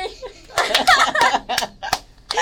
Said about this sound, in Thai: ขอเสียงตบมือหน่อย